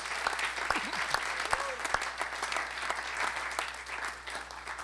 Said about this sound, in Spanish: Ahora palmas para Dios. ¡Ah, gloria a Dios.